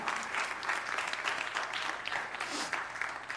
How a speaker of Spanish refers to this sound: Un aplauso a la palabra del Señor.